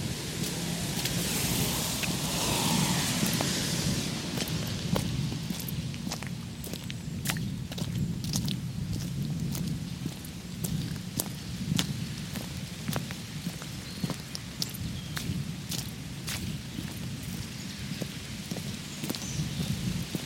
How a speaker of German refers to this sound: Regen, Pfützen und Bucheckern auf dem Boden.